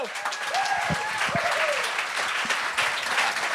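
Steady applause from a live audience for a comedian at a comedy show fills the whole stretch, dense clapping with a few faint whistles or cheers rising over it, loud throughout.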